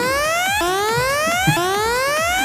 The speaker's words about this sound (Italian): e parte la sirena. E parte la sirena.